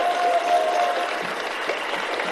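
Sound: audience applause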